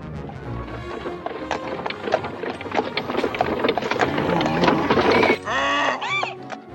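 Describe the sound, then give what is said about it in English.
Hooves clip-clop in a steady, busy rhythm over a dense rumbling clatter as a donkey-drawn coach full of children rolls past, and a loud braying call rises at the end. “On the way, he sees a coach.”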